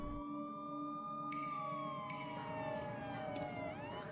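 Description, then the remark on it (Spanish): An ambulance siren wails steadily and loudly as the ambulance arrives at a house, its held tones sliding slightly lower toward the end as if the vehicle is passing by, with a low rumble of traffic underneath. “La ambulancia llega en cuestión de minutos.”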